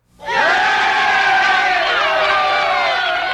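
A crowd-cheering sound effect: many overlapping voices cheer and shout in a dense roar that swells in quickly and holds loud and steady for about three seconds, with whoops rising above it.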